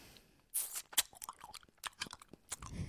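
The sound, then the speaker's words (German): Loud, crunchy chewing of ice cubes, with sharp bright cracks and bursts of crunching in an irregular rhythm over about three seconds, no talking. “Ja, du hast gekaut.”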